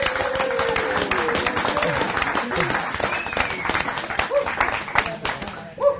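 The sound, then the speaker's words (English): An audience applauds a speaker's wife steadily for several seconds, a dense, continuous wash of clapping with scattered cheers and voices mixed in, holding fairly loud before tapering slightly at the end. “Real quick, uh, everybody, just just a round of applause for my wonderful wife.”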